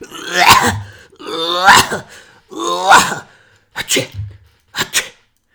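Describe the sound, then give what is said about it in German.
A voice imitates the harsh, barking croup cough of a child of about five: three loud, raspy, drawn-out hacks followed by two shorter, sharper coughs, with brief pauses between them and no talking. “Das, das war echt, äh, wie sagt man, Krupphusten galore, was der da hier mir ins Genick geblasen hat irgendwie.”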